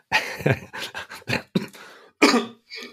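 A fit of harsh coughing: a quick string of rasping coughs, then a brief pause and two more heavy coughs, with no talking.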